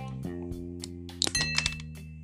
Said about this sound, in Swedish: Så låter den när här skjuter på ett glas.